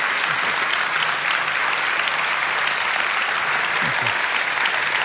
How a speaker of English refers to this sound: I did this back to front, didn't I? You're going to have to clap again now.